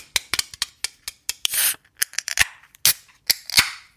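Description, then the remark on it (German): A can of strawberry beer being opened: a run of sharp metallic clicks and snaps from the tab, broken by short bursts of fizzing hiss, with no voices. “Mm, gutes Geröff, richtig knackig.”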